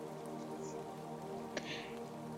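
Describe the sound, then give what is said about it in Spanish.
Steady rain falls in a soft, continuous hiss, with a sharper drop or splash near the end, under a low, even tonal hum. No one speaks. “Lluvia, ¿quién eres? ¿Qué provocas en mí? La lluvia es misteriosa.”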